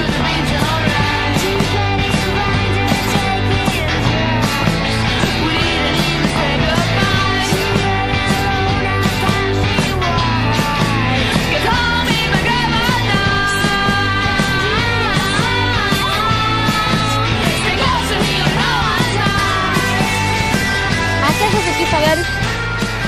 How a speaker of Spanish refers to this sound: viste que es como una canción, una banda muy alegre, gritan, como que gritan y tocan y es como un low fi pero muy happy